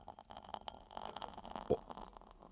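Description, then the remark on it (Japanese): Ebisu beer glugs into a glass at a restaurant before a toast, an irregular run of soft gurgles with a faint fizzy hiss underneath, quiet and with no one talking. “はい ちょっと継ぐの下手ですね えー、あうまい上手に継ぎますねすいません”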